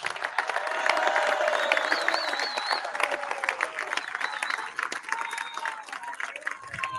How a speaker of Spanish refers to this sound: Un aplauso para los ismeños.